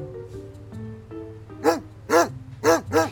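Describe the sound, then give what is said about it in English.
A junkyard dog named Slurp barks four times in a quick, uneven series, loud, each bark a sharp full-bodied woof over a steady low background hum. “How's our favorite junkyard dog doing?”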